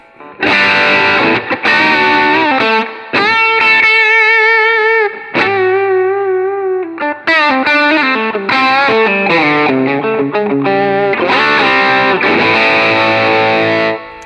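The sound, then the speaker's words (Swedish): A distorted electric guitar plays loud comping chords with effects at a setting around seven, then moves into a brief melodic lead with sustained bent notes at a setting of ten before returning to chunky chord strums. No one speaks. “Men jag tänker eh, att kompa runt sju och sen så köra iväg på ett litet solo på tio är ju helt fantastiskt bra ljudet, tänker jag.”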